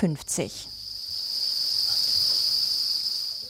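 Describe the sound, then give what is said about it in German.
A dense, continuous high-pitched chirring of thousands of farmed crickets in large round containers among egg cartons and green leaves on an insect farm in Laos, steady, after a brief burst of clattering movement at the start. “Zwischen Eierkartons und grünen Blättern krabbeln sie zu Tausenden in großen runden Behältern.”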